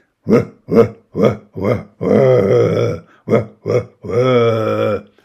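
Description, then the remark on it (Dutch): A person imitates a Thomson's gazelle call with loud, throaty grunts: four short bursts, then a long rasping drawn-out one, two more short grunts, and another long groan. “Maar goed, ja, zo klinkt de Thompson-gazelle dus.”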